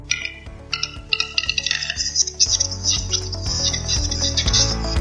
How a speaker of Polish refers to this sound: No i legendarny, tokujący pan Głuszec.